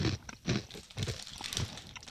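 Crunching of Sabritas Churrumais con Limoncito corn snack chips from Mexico being chewed, with a steady series of crisp, crackly bites repeating roughly every half second, fairly loud with no talking.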